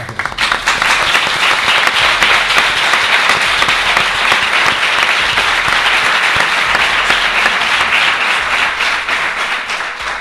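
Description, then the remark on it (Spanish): Loud, sustained applause from an audience, a dense crackle of many hands clapping at once that holds steady for about ten seconds before easing slightly at the end. “Pues eso, queremos agradeceros con este aplauso el que nos hayáis invitado a estar en vuestra compañía y en compañía de tanta gente.”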